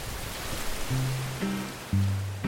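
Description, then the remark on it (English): Water leaking through a ceiling, a steady rushing, splashing hiss throughout, with a few low droning tones rising and stepping in partway through. No one speaks. “Hey, honey, there's there's water coming in through the ceiling.”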